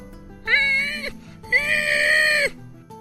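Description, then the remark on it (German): A voice imitates a strained scream muffled under a hand held over the mouth, in two sustained, wailing bursts, the second longer than the first, with a short pause between them and no speech. “Du hörst ein Hier dumpfes ein Schreien und unter deiner Hand.”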